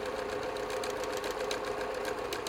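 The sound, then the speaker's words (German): A 40-year-old Gritzner treadle sewing machine with a large flywheel and foot pedal runs steadily on a wooden board in a small bedroom under a sloping roof, in March 1978. Its needle clatters in a fast, even rhythm over a constant mechanical whir while it sews shiny brown fabric with a double-fold seam. No voices. “Unter der Dachschräge steht eine 40 Jahre alte Nähmaschine der Marke Gritzner.”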